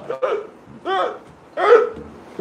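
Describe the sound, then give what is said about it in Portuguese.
The president imitates a Covid patient gasping for air, with three short, strained, hiccup-like vocal gasps spaced about every second, fairly loud with no other sounds. “Pois é, esse aí é o som do presidente imitando um paciente de Covid buscando ar.”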